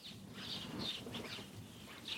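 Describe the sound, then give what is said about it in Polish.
Faint, repeated chirps from house and tree sparrows in a quick, irregular series on a warm day, over a soft low outdoor rumble. No one speaks. “Wróble nam tu towarzyszą. I mazurki.”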